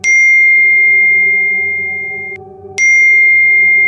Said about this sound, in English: His phone was going crazy. The text messages and social media messages.